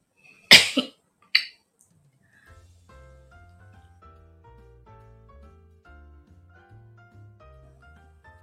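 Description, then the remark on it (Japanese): Two sharp coughs burst out in quick succession near the start, followed by a quiet pause and then soft, steady background music with a low, plodding bass line. “ちょっと咳をしたのでミュートしましたが”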